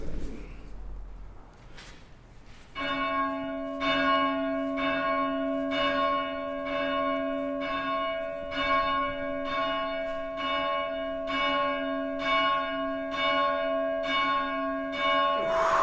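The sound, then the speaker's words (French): A church bell, rung by hand with a rope, sounds the tocsin alarm for a few seconds: loud, rapid, evenly spaced strokes over a sustained ringing hum, continuing steadily for about thirteen seconds after a brief quieter opening. “Attention, les Anglais arrivent, on sonne le tocsin. Euh, je sonne le tocsin quelques secondes.”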